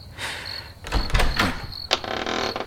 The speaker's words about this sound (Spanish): Qué, qué horrible sonido hizo la puerta, ¿verdad? Si lo alcanzaron a escuchar.